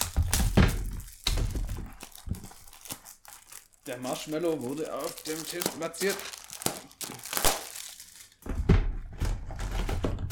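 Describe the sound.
A chocolate wrapper is torn open and rustled, with loud crinkling bursts at the start and end, while a person speaks over the middle stretch.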